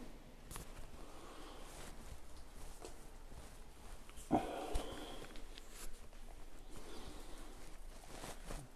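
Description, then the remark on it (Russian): A dog about to go out for a walk lets out one short, rough vocal burst, like a huff or low growl, against a steady hiss of background noise. Nobody speaks. “Собака-бабака идет гуляку.”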